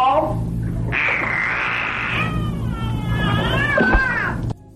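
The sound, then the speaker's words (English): A dolphin, being prompted by a woman to say "ball", gives a long run of squeaky, wavering whistles and warbling cries that slide up and down in pitch, fairly loud, over a steady low rumble. “It sounds like the dolphin's just fucking with this woman. Like the dolphin could probably say ball if it wanted to.”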